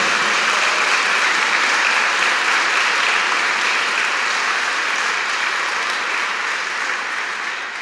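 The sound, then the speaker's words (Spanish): A large crowd at a religious service applauds the Lord loudly and steadily, a dense wash of clapping that holds strong throughout and only begins to ease slightly near the end, with no voices standing out. “¿Cuánto le damos un fuerte aplauso al Señor por eso?”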